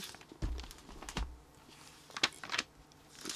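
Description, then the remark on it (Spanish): Paper pages being turned: four or five brief, crisp rustles and flicks at an irregular pace, some with a soft low thump, fairly quiet, with no one talking. “¿Saben lo que estoy haciendo con el mm. ruido que que se escucha ahí las páginas.”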